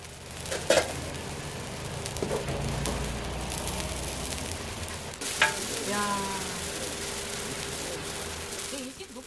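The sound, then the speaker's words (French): Mung bean pancakes sizzle steadily in a frying pan in a restaurant kitchen, where an elderly woman over 80 cooks at the stove: a continuous crackle and hiss of hot oil with a few sharper pops and faint voices briefly in the background. “elle est submergée par le parfum savoureux de crêpes de haricots mungo provenant de la cuisine.”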